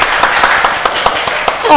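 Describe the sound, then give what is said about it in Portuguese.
An audience breaks into steady applause to thank a female guest, a dense crackle of many hands clapping at once, sustained evenly for a couple of seconds, with a voice rising briefly over it at the end. “Uma salva de palmas.”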